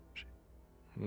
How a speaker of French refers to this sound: C'est un chat, là, ça, on l'entend.